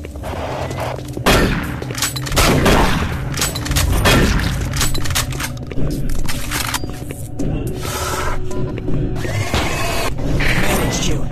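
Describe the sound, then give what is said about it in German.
Loud audio from the first-person shooter video game Doom 3: repeated bursts of gunfire crack through a dense, rumbling mix of explosions and clanking mechanical effects, sustained throughout with no pauses. “Und auf welche Art und Weise, das können wir uns jetzt mal anhören. So hört sich Doom 3 an.”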